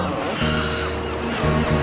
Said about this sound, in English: Let's show these bloody seagulls who owns this place.